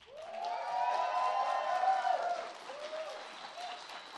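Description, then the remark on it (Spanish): A concert audience in the Sala Julián Carrillo applauds during a live Intersecciones concert, with dense, steady clapping and some cheering, loud through the first two and a half seconds before easing slightly but continuing to the end. “El aplauso es totalmente de ustedes.”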